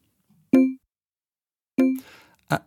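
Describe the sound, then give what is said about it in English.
An alert notification sound: three short, bright tonal blips with clear pauses between them. The second trails into a brief hiss, and the last is a quick clipped ping. No voices. “And now we're going to hear a sound called alert.”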